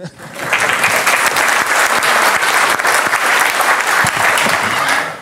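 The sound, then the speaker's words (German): An audience claps steadily for about five seconds, a dense, even patter of many hands that starts abruptly and holds a fairly loud, constant level before fading slightly at the end. “Sie dürfen gerne klatschen, natürlich.”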